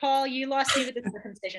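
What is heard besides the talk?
sneeze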